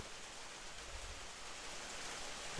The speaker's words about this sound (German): Werden Leute vom Regen im, im Podcast oh, getriggert?